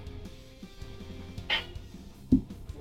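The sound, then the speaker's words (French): A cat gives a short meow once over a low steady background hum, followed shortly by a soft dull thump. Nobody speaks. “Salut le chat. ah, on entendu.”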